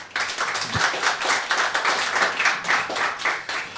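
A crowd applauds steadily for a guitarist about to perform, many hands clapping in a dense, even patter that holds at a moderate level for about four seconds with no voices over it.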